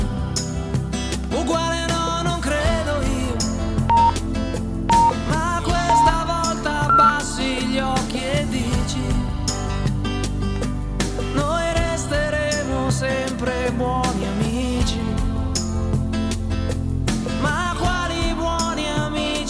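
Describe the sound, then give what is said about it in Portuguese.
An Italian-language pop song plays steadily and loudly throughout, with a sung vocal melody over a full band backing of bass, drums and layered instruments. “Mas eu, a minha geração conheceu com esse cara aí que a gente tá ouvindo em italiano.”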